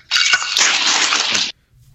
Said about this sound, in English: Whoa. Whoa. I, I just dropped an entire bowl of dog food.